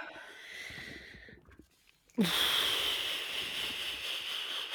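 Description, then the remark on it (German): A soft breathy exhale fades into a brief quiet pause with a small swallow, then a loud, drawn-out deep inhale with a slightly wheezy hiss. No one speaks. “Kurz schlucken. kurz nochmal atmen, ja.”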